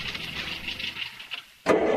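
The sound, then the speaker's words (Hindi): A car starter cranks in a steady, rhythmic whirring that never catches. The car has broken down and will not start despite many attempts. The cranking briefly falls quiet before another loud, harsh burst of noise cuts in. “लाख कोशिशों के बाद भी गाड़ी शुरू नहीं हो रही थी”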